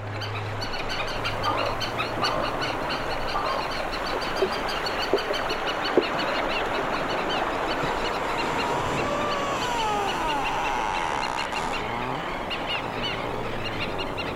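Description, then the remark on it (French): Ice plates grind and rub together below a viewpoint on the Scoresby Sund fjord in a dense, steady crackling texture, with eerie, almost synthetic gliding squeals and bird-like calls from birds all around rising and falling through it. No one speaks. “Les plaques de glace qui se frottent les unes aux autres en contrebas ont un son presque synthétique.”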